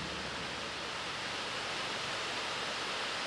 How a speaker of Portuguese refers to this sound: Glória a Deus pela chuva. A chuva sabe, eu já ia falar aqui, ó. Vai diminuir agora.